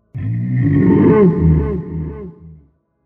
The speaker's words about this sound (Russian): Пасть раскрылась и издала ворчание, будто вулкан.